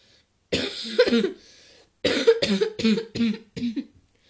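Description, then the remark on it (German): A harsh cough fit from a person who has caught an illness (not Covid): two quick coughs, a short pause, then a rapid run of four or five more bursts in a row, loud and raspy with no talking. “Und Husten.”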